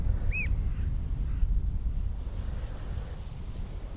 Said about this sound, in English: piping of oyster catchers, loads of them.